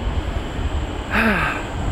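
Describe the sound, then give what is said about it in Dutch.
A very large train rumbles past with a steady broad roar, and partway through a tonal whine rises out of the noise and slides downward in pitch as it goes by. “Oh, er komt een hele grote trein langs nu.”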